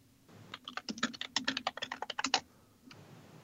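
A quick burst of typing on a computer keyboard as someone types a search about the history of the word "pwned", about two dozen rapid, uneven clicks over two seconds, then the keys stop and a faint room hum lingers.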